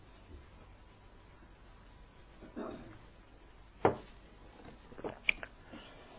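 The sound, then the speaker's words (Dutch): Someone takes a sip of water in a mostly quiet stretch: a soft handling noise, a sharper click or clunk, then a few small wet swallowing and gulping sounds. Nobody speaks. “Even een slokje water.”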